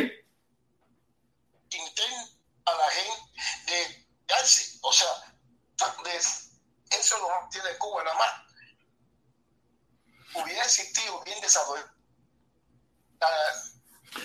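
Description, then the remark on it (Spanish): A voice on a bad phone line, chopped into short garbled bursts with abrupt dropouts and silent gaps between them, the words smeared and unintelligible as the connection cuts in and out. “Se le está cayendo la comunicación.”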